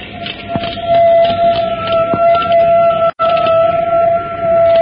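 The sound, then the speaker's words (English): Piercing, sustained metallic screech of the clumsy brakes of a great car on a copper rail as it arrives at the city of Asher, a steady high whine with rattling clatter underneath, loud throughout, cutting out abruptly for an instant before resuming. “A last ear-splitting shriek of the clumsy brakes, and the journey to the forbidden city of mystery, Asher, is ended.”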